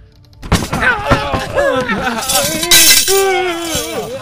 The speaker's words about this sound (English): Oh, the jar, the jar. Oh, I got, I got the jar. Hey, was that my kettle down there? I heard something. Was that my kettle? Uh, uh, no, that wasn't your kettle. Oh, my that was the money jar.